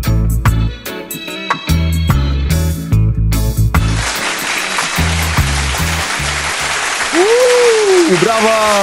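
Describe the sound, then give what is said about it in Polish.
A bouncy musical jingle plays, then a loud burst of clapping applause rolls in about halfway and continues steadily over the music, with high sliding whoops or cheers near the end. “Brawa”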